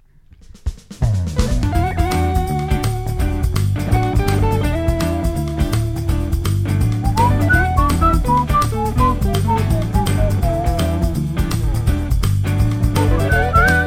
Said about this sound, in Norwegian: Ja, når jeg hører den lyden. ja, Plystringa mi eller, eller jinglen. Det er den perfekte kombinasjonen der ah, ja, som bare ja. gjør noe for meg.